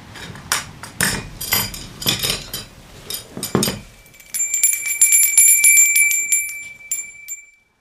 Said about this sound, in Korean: 할머니도 굳이 문을 열지 않고 서재 방문 앞 테이블에 과일과 차를 가져다 놓고 처마 끝에 달린 풍경줄을 당겨 크게 소리를 냈다. 그러면 할아버지가 나와 간식을 들고 들어갔다.